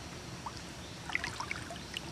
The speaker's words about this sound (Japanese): これ平均的に水温が15度前後っていうことなんですけどすごく冷たくて気持ちいいでなんかところどころコトコト湧いてる感じなんですよふわーっと泡までは見えないんですけど円を描くように湧いてるんですよ不思議